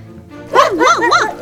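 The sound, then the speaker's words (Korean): A puppy gives a quick run of high, whiny yips and little barks, fairly loud, with the pitch sliding up and down across about a second. “강아지가 아담의 손을 핥고 고양이도 와서 그의 다리에 몸을 비벼대고”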